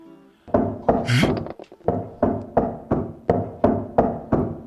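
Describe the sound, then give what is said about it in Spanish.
A series of firm knocks on a wooden door, about ten evenly spaced raps in a steady rhythm, fairly loud with no voices. “que había acabado de cenar, llamaron a la puerta.”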